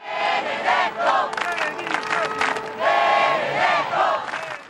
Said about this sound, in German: Überall, wo er auftaucht, Benedetto-Rufe. Der Papst als Popstar.